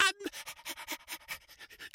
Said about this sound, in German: das Winseln ist des Hundes Lust. Das Winseln ist des Hundes Lust. Das Winseln, das muss ein schlechtes Härchen sein, das dem Hunde sagt, lass das Winseln sein.